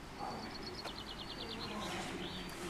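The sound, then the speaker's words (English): Birds sing outdoors in sunshine in a rapid series of high, repeated chirps, fairly faint, over a steady low background hum with no clear talking. “just arrived, sun shining, birds are singing, and I'm off for a delicious brunch.”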